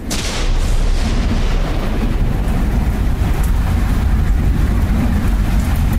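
Steady, heavy rain pours down with a deep rolling rumble of thunder underneath, a dense, loud wash of sound that holds constant throughout with no voices.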